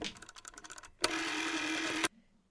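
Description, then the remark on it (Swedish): An old classic rotary telephone dial is turned, with a quick run of mechanical clicks followed by a steady, buzzing whir as it spins back for about a second, then stops abruptly. “Gamla klassiska telefoner med snurrskiva, Mm, precis.”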